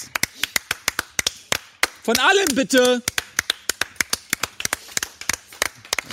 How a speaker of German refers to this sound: Im ZDF gäbe es jetzt Applaus.